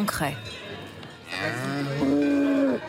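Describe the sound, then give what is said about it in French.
Cattle moo loudly at a livestock sale in Comté country, one short bellow at the start followed by two long, drawn-out lows that waver in pitch, with a faint hum of background noise. “Jour de vente de bétail à”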